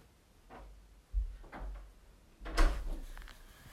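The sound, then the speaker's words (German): Soft wooden thuds and rustles of a door being moved and shut as someone leaves the room, with a firmer clunk near the end, no one talking. “Bitte Tür zumachen.”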